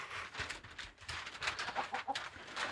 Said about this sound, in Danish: Okay, jamen altså, det er en øh, kæmpe stor høne. Den skal være herinde øh, hele timen.